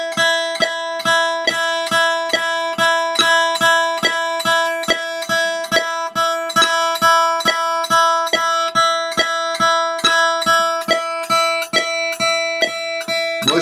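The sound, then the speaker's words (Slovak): A guitar chord is strummed over and over in a steady, even rhythm of downstrokes, two to each metronome click, ringing fairly loud with no talking. “Na jedno kliknutie dvakrát z hora, áno.”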